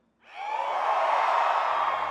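A church audience, urged by a pastor to give a shout to win a great victory, shouts together in one sustained, loud collective cry that rises quickly after a brief silence and holds steady to the end, with no individual speech.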